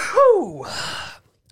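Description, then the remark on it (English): A single sneeze: a rising, voiced gasp that swoops down in pitch, followed by a breathy, noisy burst of air lasting about a second before silence. “I'm going to sneeze. Hang on.”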